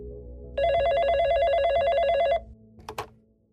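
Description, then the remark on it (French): A telephone bell rings in one sustained, loud burst of rapid, trilling electronic tones lasting nearly two seconds, followed by a brief clunk like a receiver being picked up; a man is calling about English lessons for his son. “Un homme l'appelle et lui raconte qu'il veut que son fils prenne des cours d'anglais.”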